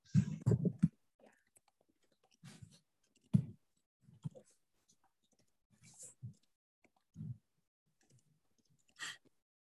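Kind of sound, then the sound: household object, typing on a keyboard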